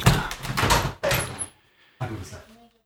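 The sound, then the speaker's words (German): A door is opened to receive parcel deliveries, with a few dull thumps and handling noises over about a second, then a short pause and another soft clatter, with muffled voices. “Ich muss an die Tür gehen, weil ich kriege ja Pakete.”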